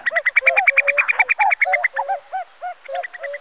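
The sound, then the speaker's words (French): A female common cuckoo's bubbling call: a rapid, loud run of liquid notes pouring out in quick succession, alone, with no voices. “Un coucou Un coucou qui ne fait pas coucou, c'est curieux. Ah mais oui, c'est sa femelle.”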